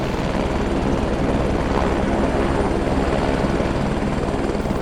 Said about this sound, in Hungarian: Helikopter már a közelben zakatolt.